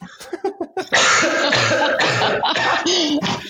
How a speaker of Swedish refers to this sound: jag har hostat väldigt mycket.